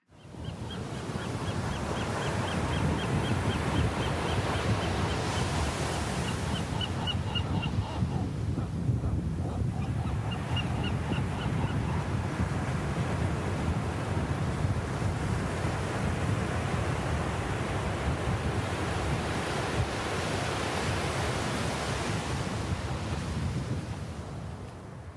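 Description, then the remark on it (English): Steady Pacific surf washes back and forth over sand throughout, a continuous roar, while a western gull's faint, high, repeated calls sound in the background early on. “complete with the call of a western gull as the waves of the Pacific wash back and forth over the sand”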